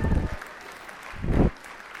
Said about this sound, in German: Einen großen Applaus für unsere starken Männer.